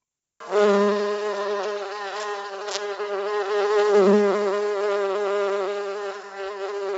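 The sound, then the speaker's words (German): A bee buzzes steadily, its droning hum rising and wavering slightly in pitch for several seconds without pause. “Ein Geräusch, das man immer seltener hört, das Summen einer Biene.”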